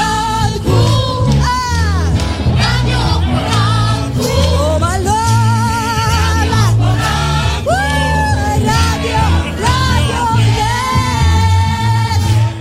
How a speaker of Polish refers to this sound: W związku z tym taki dżingiel niezwykły, który rzadko gości, a kiedyś prezes Krzysztof Skowroński bardziej niż bardzo go lubił